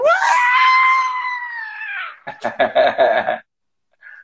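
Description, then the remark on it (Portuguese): A person imitates a gaydar that screams instead of beeping: a long, loud, high-pitched imitation scream lasting about two seconds, followed by a burst of choppy, excited vocal sounds that cut off abruptly. “que o meu gaydar, ele não, não apita. Ele grita, sabe?”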